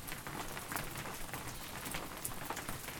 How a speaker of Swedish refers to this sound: Det är också en liten, som en liten skärm ut på vindskyddet som mm. skyddar oss mot eh, regnet som faller. Eh, och vi hoppas på att det blir så här att det slutar regna om några timmar.